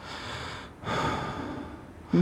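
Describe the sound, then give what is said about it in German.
A person mimics creepy heavy panting heard beside one's ear while lying in bed: two long, raspy breaths with a brief gap between, ending in a short louder burst. “oder eben das Hecheln direkt. Du schlafst im Bett und auf mhm. einmal hörst neben dir, neben einem Ohr so”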